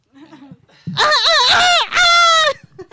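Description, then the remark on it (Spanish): A person loudly mimics a rooster's crow in two bursts, first a wavering, warbling call and then a steady, held high note, with faint voices murmuring before and after. “los gallitos son tiranosaurios. ¿Y cómo hacen los tiranosaurios?”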